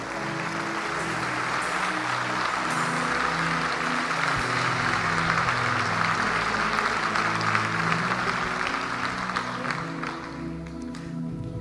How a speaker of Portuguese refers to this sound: Quantos podem dizer amém? amém. Dar um aplauso ao Senhor neste lugar.